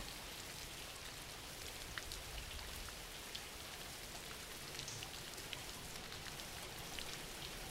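Steady rain falls without pause, a dense even hiss spread across the highs, broken by scattered sharper drop taps. No voices, just continuous soft rainfall throughout.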